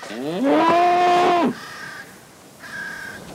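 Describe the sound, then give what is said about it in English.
A huge bull, inadvertently let out, lets out one long, loud bellow that swells, holds a rough droning pitch for about a second, then cuts off, followed by fainter tonal calls, in a scene from the film Withnail. “this is where they inadvertently let this huge bull out.”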